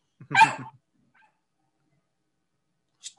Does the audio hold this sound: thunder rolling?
no